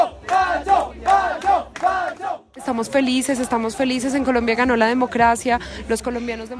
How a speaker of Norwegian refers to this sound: I Colombia vant nei-siden folkeavstemningen om fredsavtalen mellom FARC-geriljaen og regjeringen. President Juan Manuel Santos sier han vil ha nye samtaler med geriljaen. Ja, vi klarte det, synger colombianere på valgvaken til nei-kampanjen.